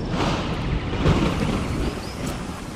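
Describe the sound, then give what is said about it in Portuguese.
A sudden heavy downpour pours down in a dense, steady roar that fills the whole stretch, loud, with a deep rumbling underneath and no voices. “Eu não conseguia acreditar na quantidade de chuva que caía.”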